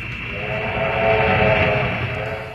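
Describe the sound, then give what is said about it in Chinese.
A milk-delivery train rumbles by at a railway crossing, swelling louder toward the middle and then easing off, while a steady, mid-pitched whistle sounds over the churning roar. No one speaks. “迎面碰上了一个铁路交叉口，一辆运送牛奶的火车呼啸而来。”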